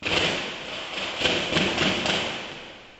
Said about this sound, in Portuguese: Fogo por toda parte e tiros de fuzil.